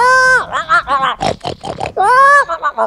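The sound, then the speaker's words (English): A man's voice imitates a pet wild boar of about 250 pounds named Bacon, letting out a quick series of loud, throaty grunts and snorty oinks, with a couple of longer drawn-out squeals breaking up the choppy rhythm. “he's got a pet pig, like a wild pig, like a giant three I don't know, 250 pound boar named Bacon and this thing is like comes waddling up to me, like,”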